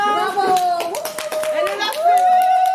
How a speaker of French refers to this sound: On applaudit